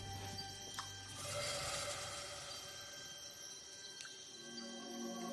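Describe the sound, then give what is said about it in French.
A dense, unbroken chorus of cicadas and insects chirping at dusk, steady and fairly loud, with layered high buzzing and a few brief sharper calls cutting through. “Là, c'est euh, le bruit incessant des cigales et des insectes. Quand la nuit a commencé à tomber, ça, ça ne s'arrête pas.”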